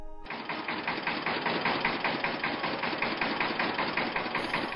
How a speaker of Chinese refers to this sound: 不过拖拉机本身是红色的，到处都是红彤彤的，不知道是不是觉得难为情了呢？可拖拉机还在一个劲儿的叫。